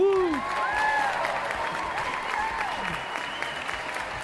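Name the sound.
ovation applause sound effect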